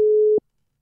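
A steady, mid-pitched telephone ringing tone of an outgoing call placed during a radio show sounds once, cut off after less than half a second by a soft click, followed by silence.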